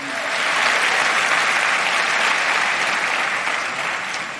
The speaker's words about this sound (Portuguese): Pode aplaudir o Senhor.